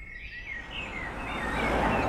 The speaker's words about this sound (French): Ce jour-là, les oiseaux se sont remis à chanter